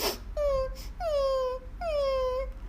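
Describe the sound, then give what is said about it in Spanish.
A voice imitates a yarará snake crying in a told story, with three drawn-out, sobbing wails, each sliding downward in pitch. They are fairly high and moderately loud, separated by short pauses, with no other talking. “Una serpiente yarara estaba, dele llorar,”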